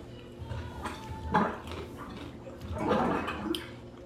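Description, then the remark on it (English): A sink drain gurgles in irregular bursts, bubbling and sloshing at moderate volume, with a couple of swelling surges of watery churning over a few seconds, caused by the washer. “That, that's the sink.”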